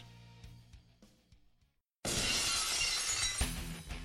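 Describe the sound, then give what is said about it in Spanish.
After a quiet stretch and a brief moment of silence, a sudden, loud crash of shattering glass bursts in, full, trailing into a sustained bright, noisy roar: Stone Cold's wrestling entrance before a WWF Championship match against Kurt Angle, with the crowd erupting. “Llega Stone Cold y la gente explota en apoyo a la serpiente cascabel al escuchar el vidrio romperse.”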